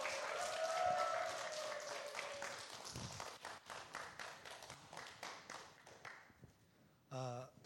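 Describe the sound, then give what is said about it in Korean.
A crowd applauds warmly to welcome a speaker coming forward, dense clapping over a faint sustained tone, then thins to scattered individual claps before a brief tonal sound cuts in at the end. “네, 우리 나오실 때 큰 박수로 네, 환영하겠습니다.”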